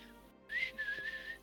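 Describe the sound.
Soft, low whistling carries a short melodic phrase of a few sustained notes, fairly quiet, with no talking over it. A person is whistling it to imitate a particular sound from a song.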